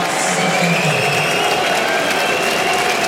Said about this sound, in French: C'est dans cette ambiance, en partie sous les sifflets, que Marta Kostiuk a quitté le cours Philippe Chatrier hier.